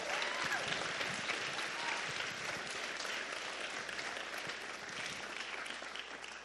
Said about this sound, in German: Und ich hoffe, dass du jeden Tag für deinen Pastor betest und Gott dankst, weil ihr habt echt einen genialen Pastor. Ich finde, ihr solltet ihm mal einen riesen Applaus geben.